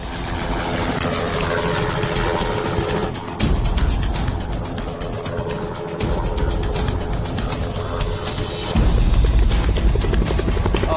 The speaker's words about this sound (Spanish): Eso es un helicóptero militar. ¿Está despegando un helicóptero?